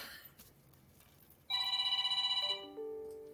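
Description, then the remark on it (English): A husband's mobile phone ringtone chimes loudly, a bright electronic melody of sustained tones stepping downward, starting abruptly after a moment of quiet room noise. “This is what makes these podcasts fun: is random phones ringing in the middle.”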